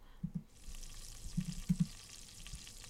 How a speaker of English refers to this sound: Sizzle, sizzle.